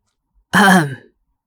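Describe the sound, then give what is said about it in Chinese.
One short, voiced cough from Hotch as he comes in from outside, almost like clearing the throat, lasting about half a second. It is fairly loud and breathy, with a quick fade, in otherwise silent surroundings. “霍奇从外面进来，正好遇到他们挤在一起调戏瑞德，于是咳嗽了一声。”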